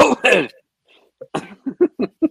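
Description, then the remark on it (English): Two harsh coughs burst out, then after a brief pause a quick run of five or six short throat-clearing grunts follows in a rough rhythm, with no talking. “Sorry, something in my throat.”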